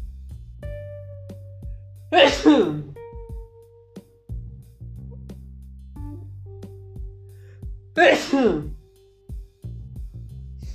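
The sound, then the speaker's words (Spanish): Two loud sneezes about six seconds apart, each a sharp burst of breathy noise, with a low steady hum and faint clicks in the background and no talking. “Un segundo, pues, ¿esto a estornudar.”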